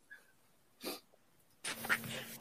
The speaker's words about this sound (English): don't belch into your mic next time. Um, I covered it with my hand. I'm sorry. You know, it's attached to my head. What do you want? it echoed.